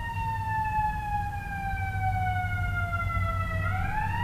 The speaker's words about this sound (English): You know, I'm really glad that we have fire trucks and ambulances.